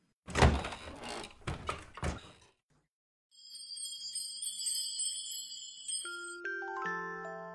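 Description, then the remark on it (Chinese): A few heavy, uneven knocks on a door, then a pause and a bright, ringing chime with high tones that step down into lower notes. No voices. “如果你愿意和我一起，那就请走过来，你只需要敲敲门。”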